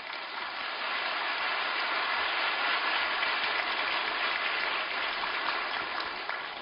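A crowd applauds in a steady, dense wash of clapping that holds at an even loudness for several seconds, with no voices heard over it.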